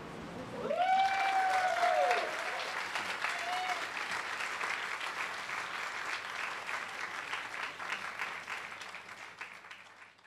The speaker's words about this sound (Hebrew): לסיים, מחכות למחיאות כפיים.